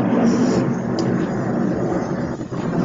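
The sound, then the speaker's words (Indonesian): A loud, steady roar of a Lion Air airplane passing overhead fills the whole stretch, a broad rushing rumble that holds constant without pause and carries no voices. “barusan ada ini ya iklan dari pesawat sponsor kita dari Lion Air”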